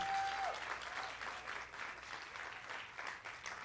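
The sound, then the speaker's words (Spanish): An audience breaks into steady applause, a dense wash of many hands clapping at a fairly even level for several seconds, with a brief tone sounding at the very start. “Los que han orado pueden aplaudir.”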